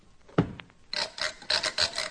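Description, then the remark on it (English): A moon rocket ship's door, reached by elevator about halfway up the rocket, is sealed shut behind boarding passengers: one low thud, then a run of four or five rough, rasping scrapes in a steady rhythm, with no voices. “We enter, and the door is sealed behind us.”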